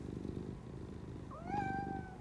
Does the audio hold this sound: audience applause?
no